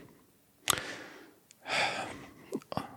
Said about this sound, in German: Ich musste einfach nur husten gerade und habe nachgedacht.